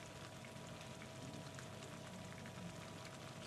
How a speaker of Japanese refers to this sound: うわ、これ、もうほら。麻婆豆腐が震えてるもん。石鍋の。暑さで。